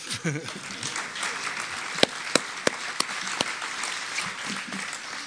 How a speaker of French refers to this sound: Vous avez bien raison d'applaudir.